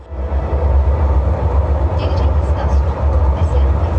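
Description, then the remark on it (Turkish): A steady, loud low rumble of a moving train on the Yenikapı–Kirazlı metro line in Istanbul fills the whole stretch, with a murmur of many voices talking underneath from a packed car of passengers, most standing side by side. “Son durum buydu İstanbul Yeni Kapı Kirazlı metro hattında.”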